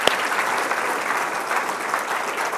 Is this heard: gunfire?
no